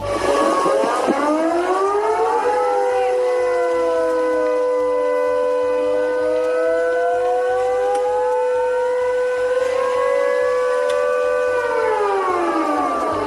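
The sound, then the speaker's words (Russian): A loud civil defense siren in Sevastopol, switched on by the authorities, wails continuously, its multiple tones slowly rising and falling in long sweeping cycles, with a faint low rumble underneath and no voices. “Власти включили сирену.”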